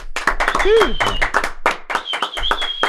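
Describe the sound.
Steady applause from a small audience, a quick run of overlapping claps filling the whole moment, with a few voices calling out and whooping over it.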